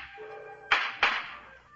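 sound effect, firecrackers going off

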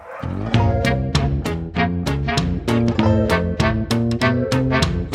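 animal, dogs barking

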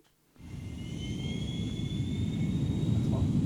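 vehicle, airplane taking off

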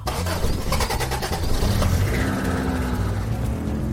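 vehicle, car engine starting

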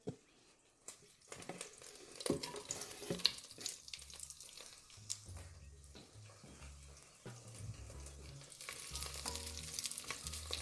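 food or drink, onions sizzling

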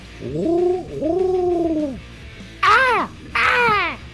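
bird, crow calling

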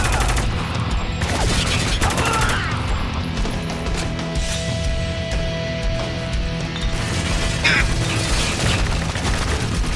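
sound effect, gunfire

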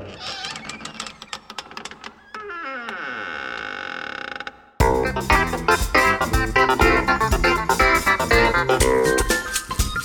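household object, door creaking open

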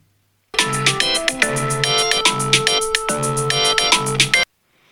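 signal or alarm, phone alarm ringtone

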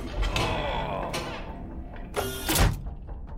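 household object, door being closed

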